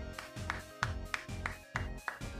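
A single person claps their hands about eight times in a steady, fairly quick rhythm. Each clap is a sharp, crisp smack, and there's no talking.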